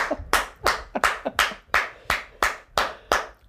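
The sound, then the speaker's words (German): A steady round of hand claps by the Minister-President of the state of Brandenburg, about nine sharp, bright slaps in an even rhythm, with a few softer claps slipped in between. No voices are heard. “Da klatscht übrigens der Ministerpräsident des Landes Brandenburg.”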